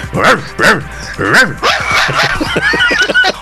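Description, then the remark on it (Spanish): A person imitates a dog barking with a few loud woofs, followed by quicker yapping and whimpering sounds in a rapid, uneven rhythm. “como la canción del perrito.”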